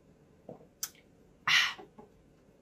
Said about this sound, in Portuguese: Vou dar um exemplo para vocês de um estresse que não é ruim para o organismo. Vou tomar um gole d'água.